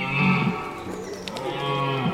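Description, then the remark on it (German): A red deer stag's rutting roar: one long, deep, droning bellow lasting about two seconds, loud, sounding like blowing through a long pipe, with no voices around it. “Man nennt es Röhren.”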